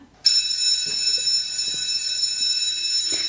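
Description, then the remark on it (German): An electric bell rings continuously to end a segment, a loud, steady metallic buzz with dense high overtones, starting abruptly after a brief silence and holding for about three seconds. “Es klingelt.”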